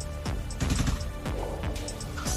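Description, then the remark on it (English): A rapid string of sharp, punchy shots with quick downward zaps, like sci-fi gunfire, fired by a drone at a team, about five times over a couple of seconds, loud, with no voices. “Um, yeah, just taking it from every angle as that other drone is kind of making it way make its way uh, towards the team, uh, and you hear a shot go off as it takes a shot at you”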